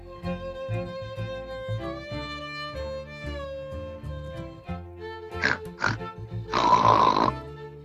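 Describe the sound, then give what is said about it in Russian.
The three piglets of the audio fairy tale Three Little Pigs grunt over gentle tonal music: two short snorting grunts, then a longer, louder rasping squeal-grunt near the end. Before that, only the melody plays. “В далеком поле жили три поросенка.”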